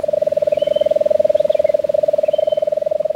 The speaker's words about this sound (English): Birds here are most active in the morning, except those that are nighttime specialists. Just after sunset, we'd hear the drawn out trill of a lesser nighthawk.